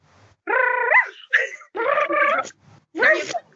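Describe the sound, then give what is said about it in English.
A person imitates a dog barking with four short, harmonic barking-like vocal bursts, fairly loud, with brief pauses between them. “That sounds like very doggish.”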